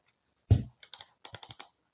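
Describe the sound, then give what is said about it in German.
Typing on a computer keyboard: a heavier thump, then two quick keystrokes, a short pause and a faster run of about five crisp clicks. No one speaks. “Sie spricht langsamer man hört Tippen. Vielleicht ist noch irgendwie ein Mausklicken dabei.”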